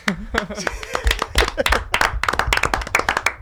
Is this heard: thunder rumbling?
no